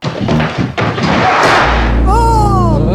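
A heavy door slams with a loud, booming thud, followed by a sustained low rumble and a few wavering, descending tones.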